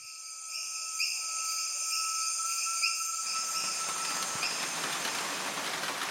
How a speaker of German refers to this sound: Die Nacht im Regenwald ist erfüllt vom Quaken der Frösche aus dem benachbarten Fluss und den Geräuschen des Waldes.